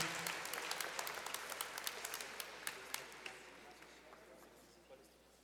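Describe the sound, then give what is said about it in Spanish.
An audience applauds together, a dense patter of many hands clapping that starts fairly strong and gradually thins and fades over about five seconds. “Pues un aplauso para ellos.”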